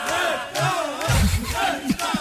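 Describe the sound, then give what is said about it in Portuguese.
A canned crowd (claque) played on the Portuguese radio station Rádio Comercial cheers and shouts as one dense, roaring burst for about two seconds, many voices blending into a loud, steady swell with no single speaker standing out. “Vem a claque.”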